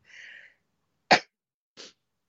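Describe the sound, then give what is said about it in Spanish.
A loud sneeze bursts out sharply after a drawn-in breath, followed moments later by a softer second burst, with no talking around it. “Tenía que estornudar, perdón.”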